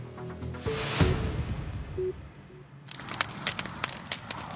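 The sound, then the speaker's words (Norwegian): A bonfire, a beacon fire lit by farmers in winter, crackles with sharp irregular pops and snaps rising over a steady rushing roar of flames, growing busier toward the end, with a few brief low tones earlier on. “Knitringa du hører i bakgrunnen, er lyden av bål som bønder har tent i vinter.”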